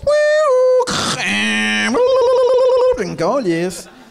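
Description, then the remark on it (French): A voice mimics the handshake tones of a fax machine calling a phone number, producing a loud run of steady beeps, buzzing tones and warbling chirps over about four seconds, without any ordinary speech. “Fait que ça arrivait quand même fréquemment, une fois par semaine, peut-être qu'il y avait un fax qui m'appelait.”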